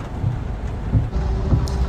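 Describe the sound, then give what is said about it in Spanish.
Steady, dense hiss of rain falling on a city street in Santo Domingo, fairly loud, with a low rumble of passing traffic underneath and a few soft thumps. No one speaks. “Y ahí mismo en esa esquina, este que casi choca con otro motor, lloviendo.”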